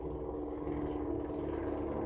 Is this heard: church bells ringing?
no